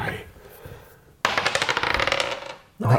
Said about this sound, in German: So, und jetzt sollten wir würfeln, oder?